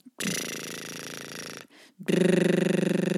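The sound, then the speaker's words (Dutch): Breath lightly blown out through loosely closed lips while exhaling, as an exercise to make the sound as long and consistent as possible, in two sustained, fluttering bursts; the second is louder and buzzier, with a steady rapid flapping rhythm, and no talking. “Ehm, dus terwijl je uitademt, een licht briesje door je lippen.”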